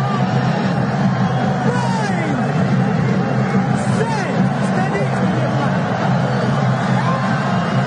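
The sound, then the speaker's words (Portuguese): A large stadium crowd at Pacaembu rumbles and stirs continuously during a Brazil national team match, a little over a minute before the end of the first half. A dense wash of many voices with occasional shouts rises out of the steady roar, loud and surrounding throughout. “Vamos na torcida. Galera se agitando aqui no Pacaembu.”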